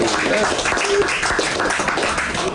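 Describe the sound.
An audience applauds an author guest at 11 pm. The clapping is steady for a couple of seconds, a dense, even wash with crowd voices and chatter mixed in underneath.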